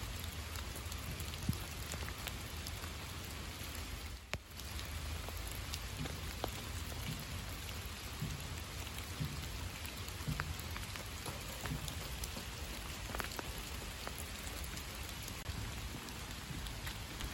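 Steady rain falls in a park in October, a dense, even hiss of drops spattering across surfaces with occasional sharper taps, continuous and unbroken for the whole stretch with no voices.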